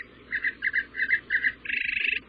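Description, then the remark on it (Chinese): Birds chirp in a quick series of bright, high twittering bursts, four short phrases followed by a longer rapid trill, with no talking over them. “大老鼠听着风声，听着树枝声，听着猫头鹰，听着小老鼠的声音，很快它都听见了小鸟叫的声音。”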